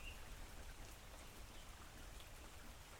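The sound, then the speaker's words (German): Steady, dense rainfall from a summer thunderstorm hisses and patters continuously, fairly loud, with no thunder or voices standing out over the constant wash of drops. “hörst du dir einfach den Gewitter-Podcast nochmal an”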